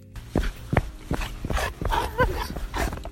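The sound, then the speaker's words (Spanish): Dogs bark in a quick scatter of short, sharp yaps, mixed with higher whiny yelps, all within a few seconds and with no one talking. “vuelvo a mi casa y lo primero que hago es salir a pasear con mis perras.”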